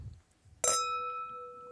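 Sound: glasses clinking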